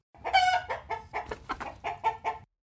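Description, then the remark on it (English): A chicken clucks in a quick series of short, fairly loud calls, about eight or nine bursts over a couple of seconds, with no talking. “Hi, Queenie. Hi, Chicken.”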